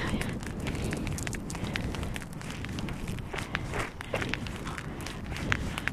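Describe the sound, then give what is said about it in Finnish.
Steady, rhythmic sliding, skating-style footsteps scrape and slide across ice, fairly loud, each step a crisp gritty swish over a constant wash of outdoor wind noise. “tämä luistelutekniikka on näköjään, minkä Jari neuvoi, niin ihan hyvä”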